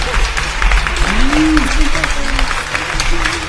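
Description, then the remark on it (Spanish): Steady applause from a crowd for the day's chef and the person preparing the drinks, a dense wash of many hands clapping throughout, with voices calling out and talking underneath. “A ah, chingada están los aplausos, aquí están.”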